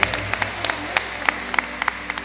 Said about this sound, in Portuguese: Vamos aplaudir, né? A nossa querida irmã Dulce, lá da Bahia.